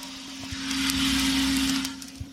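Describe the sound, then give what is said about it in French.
A coffee roaster's cooling tray churns freshly roasted coffee beans to cool them: a steady motor hum under a broad rushing whoosh, with scattered dry rattles and clicks, swelling slightly in the middle. No voices. “Ces mouvements qu'on voit de la machine, c'est pour refroidir le café, c'est ça Exactement.”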